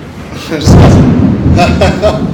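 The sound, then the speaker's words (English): A deep, rolling rumble of thunder from a storm outside swells in and lingers as a low, steady growl, with a person's voice and brief laughter breaking through on top. “the, the storm that we're currently witnessing.”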